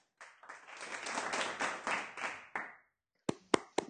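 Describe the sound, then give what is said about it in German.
A short burst of applause from a small group, dense clapping for about two and a half seconds, then a pause and a few last separate sharp claps. “Alex ist Master. Ich möchte hier Applaus.”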